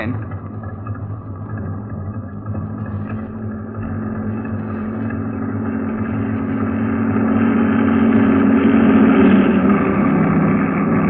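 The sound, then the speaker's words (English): The engine of a heavy truck in a convoy, the tenth truck, rumbles with a deep, steady drone, growing gradually louder as it approaches and passes, with no voices over it. “Here comes number 10.”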